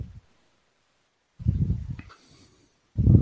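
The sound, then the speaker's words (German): Breathy gusts of air from someone breathing into the microphone hit it in bursts, a long exhale followed by another rush of breath after a pause, low and rumbling with no speech. “Ich höre da jemanden atmen.”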